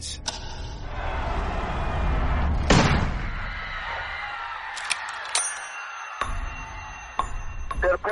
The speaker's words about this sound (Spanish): Parece que ha ocurrido algo en el desfile. Los tiros resonaron por toda la plaza Dili, alterando el curso de la historia. Parece que han disparado al presidente.